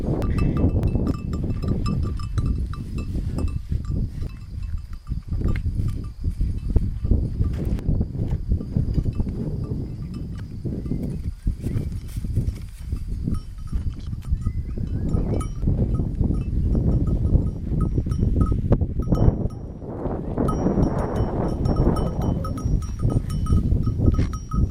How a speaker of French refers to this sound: Petite pause avec des sons d'un élevage en Ariège.